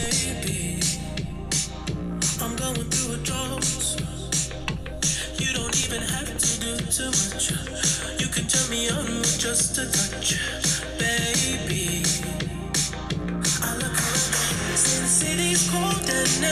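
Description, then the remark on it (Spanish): A steady, punchy drum beat drives a full-band song, with crisp regular hits in a retro eighties style under bright synths, loud and continuous throughout. “Paramos y la misma bataca. Y, y, esa bataca la vamos a escuchar toda la rola.”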